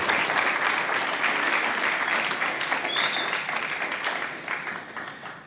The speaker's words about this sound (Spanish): He ese fuerte aplauso. Give that strong applause.